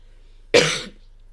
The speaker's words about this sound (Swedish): Börjar du med för hosta här? Jag är smittad över telepatiskt. Nej, det har kommit eh, nu senaste dagarna har det faktiskt eh, smugit sig på lite grann. Jag är inte riktigt nöjd med det.